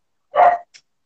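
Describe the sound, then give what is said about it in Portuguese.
A dog barks as someone arrives: a single sharp, loud bark, followed by a brief faint high-pitched yip. No one speaks. “Minha irmã chegou, aí o cachorro tá latindo.”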